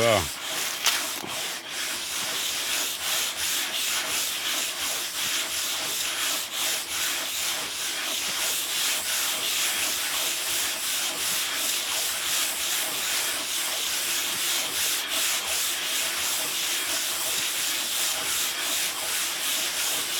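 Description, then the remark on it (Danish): Continuous hand sanding of wood with fine-grit sandpaper: a soft, hissy rasp with quick back-and-forth strokes repeating steadily for about twenty seconds. “Der er bare nogle ting, det skal jeg bare gøre med håndklods.”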